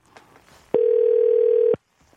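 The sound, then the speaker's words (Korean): A steady telephone dial tone sounds for about one second as Park Myung-soo's Radio Show places a call to a listener, a loud, unwavering mid-pitched hum that starts and stops abruptly, with faint background noise around it and no talking. “9744님 전화 걸어보겠습니다.”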